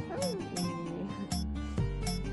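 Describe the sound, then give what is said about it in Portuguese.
A four-month-old baby boy, the speaker's third child, babbles and coos in the background in short, rising and falling vocal sounds, fairly soft, with no clear words spoken. “E como vocês podem ouvir aí de fundo, tem um bebezinho agora, meu terceiro filho”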